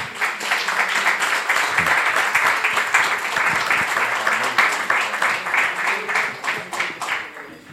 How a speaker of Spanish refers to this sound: pido un fuerte aplauso para él también.